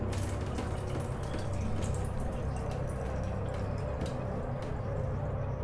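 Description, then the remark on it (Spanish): Heavy water drops fall steadily from a wet body onto a fine ceramic shower tray, an irregular patter of small splashes over a continuous wet background hiss, with no voices. “De su mojado cuerpo caen pesadas gotas que son claramente audibles al chocar contra el plato de ducha de fina cerámica en ese silencio apabullante.”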